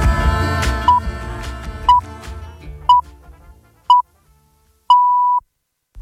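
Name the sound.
radio time signal beeps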